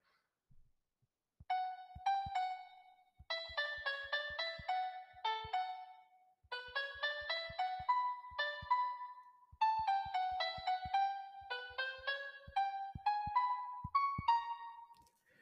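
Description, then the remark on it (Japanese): A simple single-note melody played on a smartphone piano app with a synthetic piano-like tone, notes struck one after another in a steady, slightly halting rhythm with soft taps underneath; the last note is played wrong. Clear, no voices. “あ、やっぱり最後間違えた。やっぱりね、あの、ちゃんとキーボードで弾いて練習します。”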